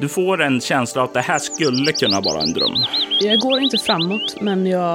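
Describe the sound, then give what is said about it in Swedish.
Birds chirp and tweet repeatedly in the background, quick high-pitched calls scattered throughout while a person speaks steadily in the foreground. “Du kan höra att fåglarna i bakgrunden börjar tystna.”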